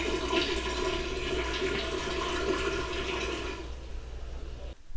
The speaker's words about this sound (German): So, jetzt hat sich meine Spülmaschine gerade auch noch gemeldet. Ich sitze nämlich hier gerade in der Küche.